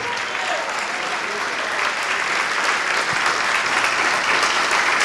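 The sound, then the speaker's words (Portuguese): A church audience applauds in celebration steadily, a dense wash of clapping that holds at an even, loud level for the whole stretch with no pauses or voices standing out. “Então comemora, dá uma salva de palmas, comemora, eu creio, porque Deus já está fazendo.”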